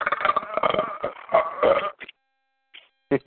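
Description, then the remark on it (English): A drawn-out, strained burp with gagging undertones, fairly loud, from a person trying desperately not to vomit while burping, followed by a short pause and brief laughter. “that was the sound of me trying desperately not to vomit while burping.”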